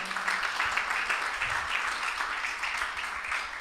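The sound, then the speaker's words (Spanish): An audience applauds Christ together, a dense, steady wash of many hands clapping at once that holds at an even, fairly loud level for several seconds with no voices standing out. “Apláudele a Cristo, no a mí, a Cristo, aleluya.”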